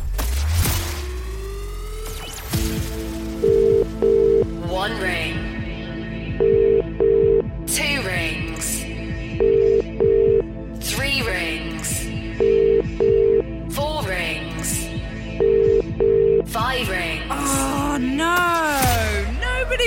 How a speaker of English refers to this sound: Let's dial a number. Remember, got to pick up within five rings.